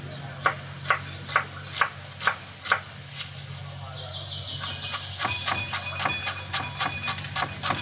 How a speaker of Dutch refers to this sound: Ik ga daar een shallotje bij snijden, heel fijn.